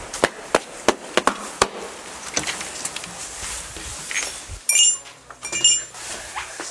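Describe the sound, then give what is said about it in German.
A shop door bell rings as someone enters a role-playing game shop: a few sharp clicks and knocks, then a bright metallic jingle that chimes twice, clear, with no talking. “Auch mehr so eine unspektakuläre Türklingel.”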